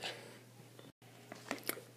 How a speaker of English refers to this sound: I just had to take a sip of water before I get into this one.